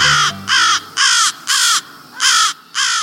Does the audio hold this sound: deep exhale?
no